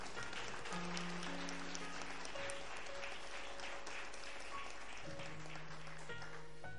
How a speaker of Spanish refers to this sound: ¿Cuántos dicen amén? Aplaudan al Señor ahora.